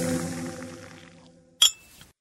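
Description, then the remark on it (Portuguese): A fading ringing tone gives way to a sharp, bright clink of glasses touching in a toast, followed by a softer second clink, clear with no one talking. “um brinde a você que está ouvindo o Café com Notícia”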